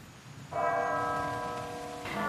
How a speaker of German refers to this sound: Das Einuhrläuten der Kirchturmuhr hört er schon nicht mehr.